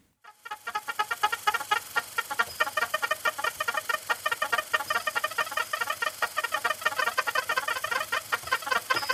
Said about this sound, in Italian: Era infatti una piccola macchina con 17 tasti, che combinavano i toni e il tempo di una serie di impulsi elettrici che, passando attraverso dei dischi, grazie poi ad un amplificatore, emettevano questo suono.